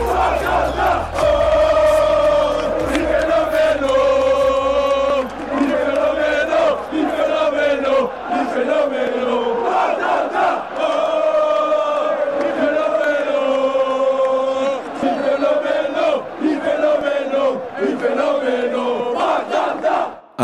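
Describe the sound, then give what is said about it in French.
A large crowd of football supporters chants in unison in praise of the player Steph Mandanda, a loud, sustained, repetitive song rising and falling in steady phrases for the whole stretch, voices massed together with no single speaker. “un chant à la gloire de Steph Mandanda.”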